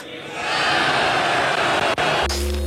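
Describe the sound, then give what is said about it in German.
A loud crowd cheers and roars in a dense, steady wash of voices for about two seconds, then cuts off abruptly as a different sound takes over. “Und jetzt jubelt.”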